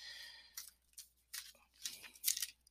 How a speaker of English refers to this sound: Oh, okay let me let me just shuffle this one like kind of popped out a little bit